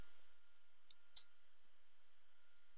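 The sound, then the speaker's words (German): A couple of soft computer mouse clicks, one quick tap followed shortly by a sharper second click, as Save and Publish is clicked in a blog editor, over a quiet background hiss with no talking. “Wir klicken jetzt in dem Fall einmal auf Speichern und Publizieren”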